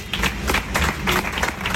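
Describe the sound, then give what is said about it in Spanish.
Steady applause from a group of motorcycle racing team mechanics in the pit box as rider David Muñoz arrives, during the Motorcycle World Championship; a dense patter of many hands clapping together at moderate loudness throughout, with faint background murmur. “David Muñoz, que llegaba al box entre los aplausos de sus eh, mecánicos, de sus responsables del equipo eh, del piloto sevillano.”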